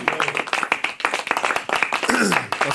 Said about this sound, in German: der längste Applaus, den ihr heute hören werdet.